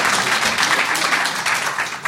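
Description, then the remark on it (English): An audience in Canada applauds steadily to show how many have seen the show Orphan Black, a dense, even wash of many hands clapping at once with no pauses, holding a fairly loud level throughout. “Applause, applause. Yeah, make as much noise.”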